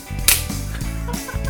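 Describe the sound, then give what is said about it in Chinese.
A single sharp, loud hand clap cracks out near the start, followed by low, steady humming tones with no speech. “对，要拍手。 我再拍一次吗？”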